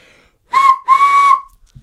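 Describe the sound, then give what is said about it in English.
A person imitates a train whistle with their voice: two steady, breathy whistling tones, a short blast followed by a longer one, both fairly loud and with no one talking. “You should make your train noise real quick.”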